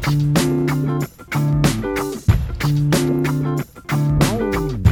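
A song's opening plays loud and close: bright sustained chords in steady, repeating phrases over a thumping bass, with short drops between them and sliding tones near the end, no voice yet.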